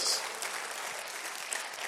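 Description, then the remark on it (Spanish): An audience applauds the Lord during a church sermon, a dense wash of many hands clapping at once, sustained and even throughout with no voices standing out. “¿Cuántos si usted lo entendió, déle aplauso al Señor.”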